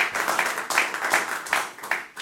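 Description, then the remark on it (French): An audience at a conference on forestry cooperatives applauds the speakers who gave testimonies, a dense, steady patter of many hands clapping at once, with slight surges in intensity throughout. “On peut les applaudir.”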